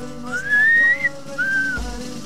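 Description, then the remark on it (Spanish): A person whistles two phrases: a long, gently rising note, a brief pause, then a shorter, slightly falling one, clear against a quiet background. “¿Por qué estamos silbando, …?”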